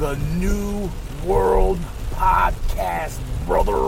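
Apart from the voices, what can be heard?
heavy rain falling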